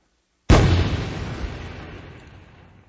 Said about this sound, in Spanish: ¿escuchó esa explosión? Ajá. Y esa explosión liberó gran cantidad de energía.